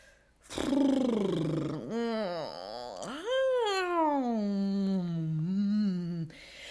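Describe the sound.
A long, drawn-out voiced yawn from one person during a yawn stretch, loud, its pitch sliding down, dipping, then rising and easing off over several seconds.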